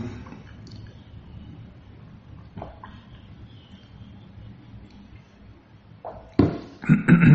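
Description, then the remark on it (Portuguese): Someone drinking water: a quiet, faintly rustling stretch, then a few loud, wet gulps and swallows bunched together in the final second or so. “Deixa eu até tomar água aqui, viu?”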